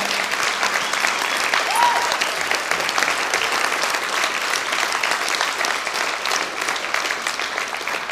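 Sustained audience applause for a worship music leader leading worship for the last time before a break, a dense, steady wash of many hands clapping at an even loudness with no pauses.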